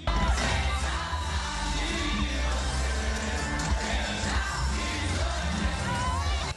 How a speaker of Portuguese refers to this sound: Tá um arrastão! Acaba de começar o arrastão aqui no centro, todo mundo correndo, maior confusão aqui.